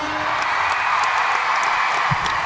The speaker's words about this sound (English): Hear the crowd roar.